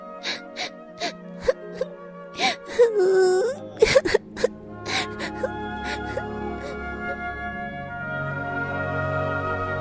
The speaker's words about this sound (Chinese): 但是现在的安妮还是在哭泣着，把脸埋在枕头里。